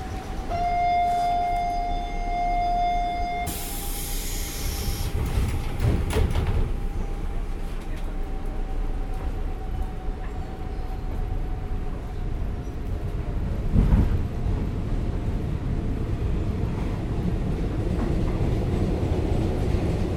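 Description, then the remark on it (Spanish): Recorded inside a moving train: a steady low rumble and rising motor whine fill the car, with a tonal chime and a brief hissing rush early on, plus occasional clunks. “Y escuchemos desde adentro del tren.”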